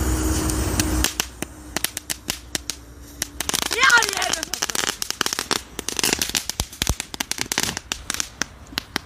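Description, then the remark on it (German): A small firecracker, lit with a lighter, fizzes and then erupts into a rapid string of sharp crackling pops, dense and irregular, fairly loud, with faint voices in the background. “Ich würde es vielleicht nicht so in der Hand halten, weil das auch da hoch geht, ne?”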